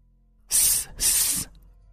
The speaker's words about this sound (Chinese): 后面的铁臂丧尸发出了类似蛇类的嘶吼，额头已经成为白色的二级魔晶竟然隐约散发着一点点邪异的光晕。